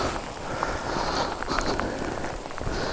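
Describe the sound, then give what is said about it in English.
Steady rain patters on hard surfaces, a dense, even hiss dotted with sharper individual drops and splashes, continuous throughout with no voices. “it's raining.”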